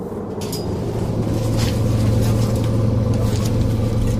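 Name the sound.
bus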